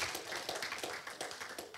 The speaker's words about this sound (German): Hey, Gott verdient einen Applaus, yeah.